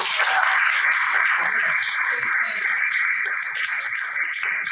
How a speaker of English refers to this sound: So can we get a clap for him this morning?